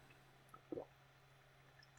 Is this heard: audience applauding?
no